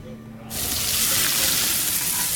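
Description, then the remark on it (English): A loud, steady sizzle of a juicy, cheesy burger on a hot grill bursts in after a brief quiet moment and crackles continuously, with no one talking. “We know that juicy, cheesy, grilled to perfection burger sounds amazing, but it does sound like something is missing.”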